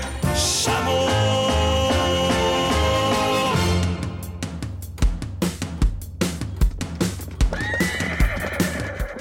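A horse lets out a long, shrill whinny, then hooves clip-clop at a steady trotting rhythm, fairly loud, with no one talking.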